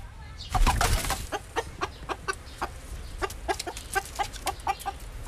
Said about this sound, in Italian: E poi c'è lei, una gallina di Brooklyn.